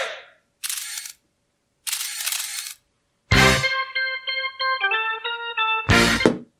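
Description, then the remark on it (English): A freeze-frame camera shutter effect: two crisp shutter snaps, then a punchy hit leading into a bright, stepping musical sting that ends on one last shutter burst. Loud, no talking. “I finally pulled a freeze frame.”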